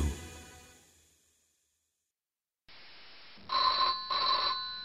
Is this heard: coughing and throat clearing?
no